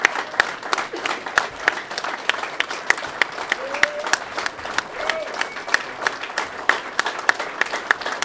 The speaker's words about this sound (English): The sooner you stop clapping, the sooner we can have lunch.